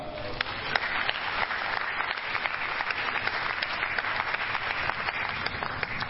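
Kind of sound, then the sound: crowd, audience clapping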